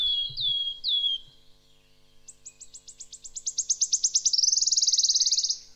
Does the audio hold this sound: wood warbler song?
yes